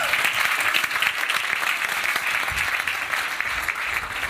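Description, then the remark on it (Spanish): The audience of Iglesia Oral church claps to welcome a guest, a steady, dense, even patter of many hands with no voices rising above it, holding at a consistent loudness from start to finish. “Así que quiero que recibamos con un fuerte aplauso a un amigo, a Fernando Arao, que va a estar con nosotros el día de hoy.”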